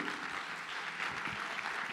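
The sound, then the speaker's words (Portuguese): A church audience claps steadily and loudly together during a worship service, applauding Jesus: a dense wash of many hands with no one speaking, sustained evenly for a couple of seconds. “Quem pode aplaudir Jesus bem forte por isso?”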